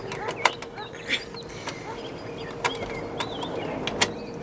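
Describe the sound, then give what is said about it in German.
A key turning in an old lock: a handful of sharp metallic clicks and scraping rattles over a steady low hum. The key fits and the lock opens. “Ach, er passt. So ein Zufall. Das Schloss ist offen.”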